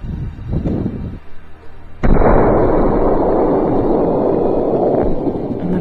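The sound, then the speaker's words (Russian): A second gunshot, fired by a man in snowy mountains, cracks out loudly after a quieter, rumbling lead-in, followed by a long, heavy rolling echo that fills the rest of the moment with dense noise. “И вот второй выстрел.”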